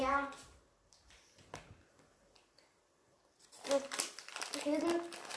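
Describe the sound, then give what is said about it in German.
A snack bag crinkles in a loud, sustained burst of rustling plastic near the end, after a quieter stretch with faint talking and a few soft handling sounds. “Ich hole mal einfach die ganze Tüte.”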